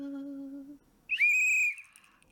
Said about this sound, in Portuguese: E é que é isso, pá? Foi um apito. Foi um... e já e já o apito é automaticamente samba.